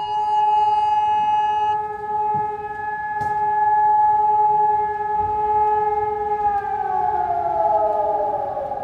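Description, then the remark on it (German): Civil defense warning sirens wail in a steady, sustained tone across Düsseldorf city centre, Germany, at 11 a.m. on the 2022 national warning day, with several pitches stacked together, then begin to shift and descend near the end, heard outdoors over faint background noise. “Ja, das stand jetzt beim Warntag 2022 auf dem Programm.”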